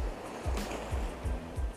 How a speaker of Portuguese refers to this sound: Hoje eu tô gravando um áudio aqui diretamente do, do, do Tubarão, tá? Aqui na beira do mar, dá para ouvir até as ondas, né?